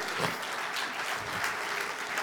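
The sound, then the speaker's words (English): Soft, scattered golf claps from an audience in a church sanctuary, a light polite patter that stays fairly even and quiet for a couple of seconds, with no voices over it. “Y'all can give me golf claps all you want.”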